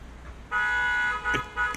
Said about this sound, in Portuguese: Ah, olha, olha a buzina.